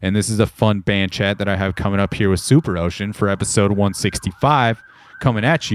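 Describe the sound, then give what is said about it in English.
An emergency siren wails steadily outside in the suburbs, rising above a stretch of continuous speech and standing out most clearly in a short pause near the end. “But oh, that's that's a siren.”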